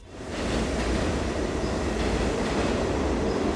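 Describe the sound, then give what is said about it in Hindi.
A Kolkata (Calcutta) metro train, running on underground rails, rumbles steadily along, a loud, continuous low roar with rattling and faint high whines, swelling in over the first half second and then holding constant. No voices. “कलकत्ता सन उन्नीस हिंदुस्तान का इकलौता शहर जहां रेल की पटरियां सिर्फ धरती के ऊपर ही नहीं बल्कि धरती के नीचे भी दौड़ती हैं”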